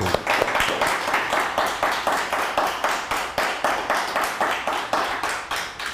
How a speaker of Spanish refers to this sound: Un fuerte aplauso. Sea usted bienvenido. Pero aplauda con ganas, parece que está usted desinflado, aplauda con ganas, nos estamos gozando en Shabbat nuevamente, a ver, bien fuerte el aplauso.